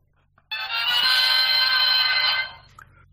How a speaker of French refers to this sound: c'est le son quand on ouvre un coffre dans Legend of Zelda